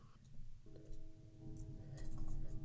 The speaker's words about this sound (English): Can you hear the train? I can hear the train.